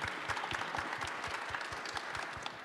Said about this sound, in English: So, round of applause for